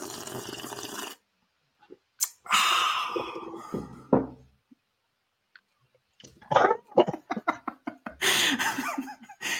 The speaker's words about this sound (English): So, with that, we will do first sips, which is the time of the show where we sip coffee ridiculously loud and annoying and talk about our first impressions.